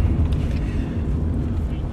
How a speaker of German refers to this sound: Also wir fahren gerade Auto.